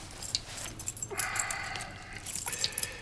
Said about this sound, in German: Gehst einfach in den Zirkuswagen rein, da bist mit Sicherheit völlig ungestört drinnen wie draußen. Er hält Yoshi einen Schlüssel hin.